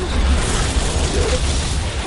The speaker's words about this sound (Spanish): El camión explosiona en las piernas del titán.